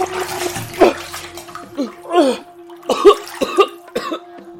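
A head is plunged in and out of water several times, with close, sloshing splashes, gurgling and choked, coughing gasps in between each dunk.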